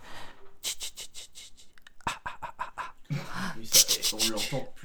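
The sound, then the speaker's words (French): A voice imitates a horror-film breathing effect: a quick run of sharp, breathy exhalations in a steady rhythm, followed by louder, voiced panting bursts. “tu sens qu'il a essayé de faire un truc euh, comme dans Halloween ou mm. avec la respiration”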